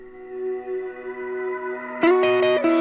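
A pop song intro plays: steady, echoing synth chords hold for a couple of seconds, then brighter, fuller chord stabs come in rhythmically near the end. No vocals yet.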